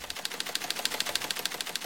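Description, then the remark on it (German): A telex teleprinter, a cabinet-sized box with a huge paper roll and a needle printer, rattles away printing out news messages in a fast, steady stream of sharp mechanical clicks, evenly paced and continuous, with no voices. “Schrankgroße Kästen mit riesiger Papierrolle und Nadeldrucker spuckten die Nachrichten mit einem Höllenlärm am laufenden Meter aus.”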